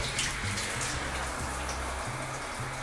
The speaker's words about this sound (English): I'm in a shower, sharing my thoughts.